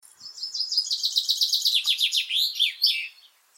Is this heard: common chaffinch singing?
yes